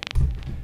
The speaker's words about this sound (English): That's the sound of a telephone interfering with things.